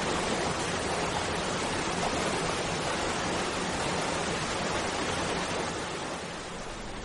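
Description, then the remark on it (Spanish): A steady, dense roar of rushing water, like a waterfall, holding constant for several seconds before easing slightly at the end. No voices. “Después de largos días consiguió traspasar aquellas dunas tan grandes y extensas y encontró una cascada.”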